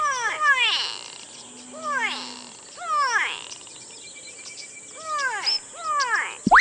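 A noisy brown bird calls again and again, each call a loud, harsh, descending squawk, coming in quick pairs with short pauses between, with no talking.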